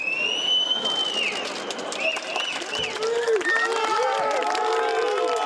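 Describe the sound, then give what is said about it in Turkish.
A crowd in the courtyard of Anıtkabir, Atatürk's mausoleum, applauds President Erdoğan steadily throughout as he goes to sign the Anıtkabir special book, with loud, shrill whistles rising and falling over the clapping and scattered cheering voices mixed in. “Cumhurbaşkanı Erdoğan, Ulu Önder Atatürk'ün mozeresine çelenk bıraktı, saygı duruşu ve İstiklal Marşı'nın ardından Anıtkabir özel defterini imzalamaya giderken de yine alkışlar yükseldi avludan.”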